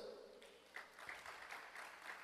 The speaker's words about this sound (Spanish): ¿Le das un aplauso fuerte a Dios?